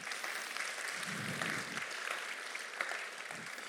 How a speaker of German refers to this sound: Komm, gebt ihr auch mal einen Applaus.